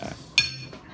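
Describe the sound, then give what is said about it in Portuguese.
A single bright glass clink rings out, like two glasses tapped together in a toast with beer, its high tone lingering briefly over a low murmur of background noise. “Que e eu vou fazer o Porra. brinde então.”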